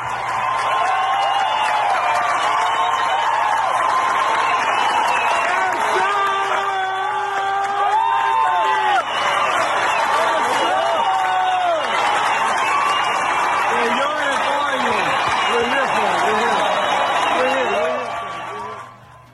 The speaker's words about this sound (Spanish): y en su concierto le dedicó unos minutos y la gente le respondió de, pues vamos a decir, de una manera muy respetuosa eh, y también empezaron a gritar el, pues, típico grito de, de Kobe, ¿verdad?